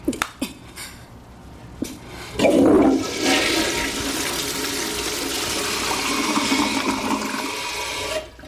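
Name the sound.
toilet flushing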